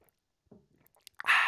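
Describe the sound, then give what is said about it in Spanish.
Someone drinks water: a few soft, muffled gulps and small clicks, then a sudden loud, breathy exhale that holds steady as the drink ends. No one speaks. “Tomé mi agua.”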